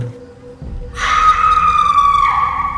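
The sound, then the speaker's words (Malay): A woman lets out a loud, piercing scream that bursts in suddenly after a quiet moment and holds on one shrill, steady pitch. “Kau kenapa je jerit ni, weh?”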